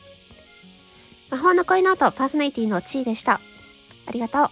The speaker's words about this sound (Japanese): このセミ、セミが鳴いてる音聞こえるかなめっちゃセミが鳴いてます。